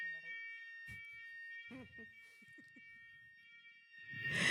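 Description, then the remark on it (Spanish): An apartment fire alarm blares a steady, piercing high-pitched tone without pause, while people talk quietly beneath it; a louder burst of noise rises near the end. “La alarma contra incendios se prende por cualquier cojo es un pan quemado, vapor de agua, lo que sea.”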